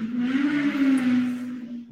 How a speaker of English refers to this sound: Sorry, just motorcycle.